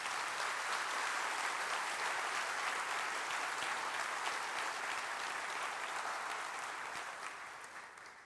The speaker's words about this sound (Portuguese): Aplauda Jesus o mais forte que você puder.